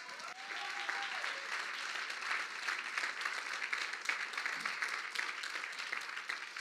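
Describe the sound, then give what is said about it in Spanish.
Sustained applause from an audience giving themselves a round of applause at the preacher's call, many hands clapping in a dense, steady wash of sharp crackles that holds at an even level for several seconds without any talking. “Dese un aplauso.”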